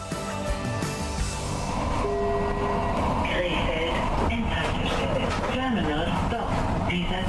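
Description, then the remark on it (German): A train pulls into a station at the end of its run with a steady, loud rumble and sustained metallic whine. Muffled voices rise over the noise in the second half. “Zug endet hier. Bitte aussteigen.”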